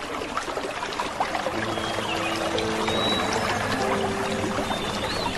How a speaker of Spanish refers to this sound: Llegamos hasta un suave arroyo.